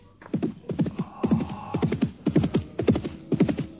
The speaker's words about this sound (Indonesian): Oh, aku mendengar derap kuda menuju kemari.